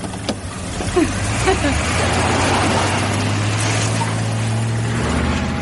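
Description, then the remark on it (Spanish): A car engine hums steadily and builds up speed as the car drives along a road between trees, its low drone rising slightly in pitch over a constant wash of road and wind noise. “Kevin conduce por una carretera entre árboles acelerando.”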